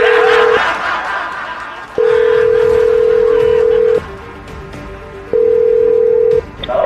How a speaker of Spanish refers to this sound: Ok, vamos a marcarle a ella.